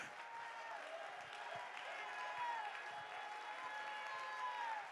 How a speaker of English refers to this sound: Come on, lift your voice. I can't hear you. Clap your hands. Shout